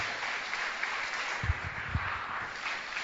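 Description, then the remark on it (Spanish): An audience applauds for Jesus during a sermon, a dense wash of clapping that holds at an even level for about three seconds, with a few heavier low thumps mixed in. “Le da un aplauso a Jesús.”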